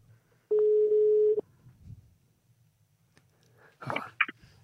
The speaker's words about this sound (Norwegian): All right, jeg ringer nå.